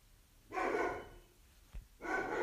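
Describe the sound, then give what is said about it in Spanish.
A dog barks twice at a passing motorbike that sounded its horn, fairly loud, each bark a drawn-out harsh burst with a brief pause and a soft thump between them. “Bueno, ahí tengo el ladrillo de mi perro. Porque pasó una moto y tocó bocina.”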